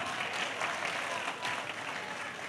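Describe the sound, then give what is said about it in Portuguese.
Sustained applause from a crowd, given to the Lord Jesus Christ; a dense steady wash of many hands clapping at a fairly even level throughout, with no voices standing out. “Eu acho que isso merece um forte aplauso ao Senhor Jesus Cristo.”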